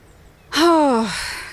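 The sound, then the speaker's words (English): A single loud, drawn-out goose honk on a lake, with a harsh nasal tone that slides slightly downward before trailing off, heard alone over faint background noise. “The geese are back.”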